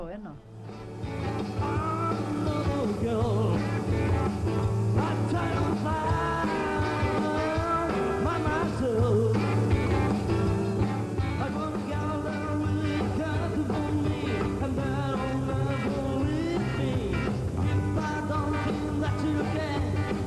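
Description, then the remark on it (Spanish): A live-recorded song plays back steadily throughout, with a full band, a sustained bass line and wavering vocal melodies, loud and continuous with no pauses. “venga, que dice que, que, suena mejor alguna canción que ha grabado él.”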